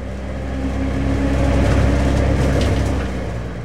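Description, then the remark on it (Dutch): A car engine rumbles steadily with a deep, low hum, swelling louder through the middle as it revs up, then easing back slightly at the end. No voices are heard. “En hij ging steeds in versnelling.”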